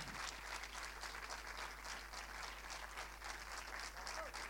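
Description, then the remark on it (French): Steady audience applause at the preview screening of the film À la vie, for its director Aude Pépin, many hands clapping in a dense, continuous patter that holds at an even level throughout, with no voices standing out above it. “Donc c'était l'avant-première de À la vie, réalisée par Aude Pépin, qu'on peut applaudir également.”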